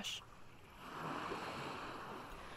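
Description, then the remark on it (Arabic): Waves wash steadily onto a beach in a broad, rushing surge that swells and holds, with a short splash at the start and no voices. “بعد الأزمة السورية تحول هذا الصوت من صوت شاطئ لصوت بذكرنا بسوريا والحرب واللاجئين”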